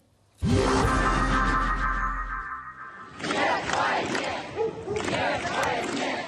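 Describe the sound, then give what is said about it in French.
A large crowd of protesters in Russia, protesting the partial mobilization decreed by Vladimir Putin, chants loudly, opening with a sustained collective roar, then breaking into rhythmic bursts of many voices shouting together, dense. “À Moscou, Saint-Pétersbourg, et même en Sibérie, les manifestants protestent contre la mobilisation partielle décrétée par Vladimir Poutine hier.”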